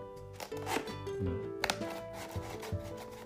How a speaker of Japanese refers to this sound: こんなもう開封されてるようなパカパカのさこのね音聞いて